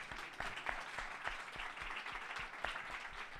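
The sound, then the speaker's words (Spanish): A live crowd applauds steadily for the sponsor Made, many hands clapping in a dense, sustained patter with a few sharper claps standing out, lively throughout. “Me pueden seguir arroba Made muchachos, patrocinante, un aplauso para Made que me da dinero, muchachos.”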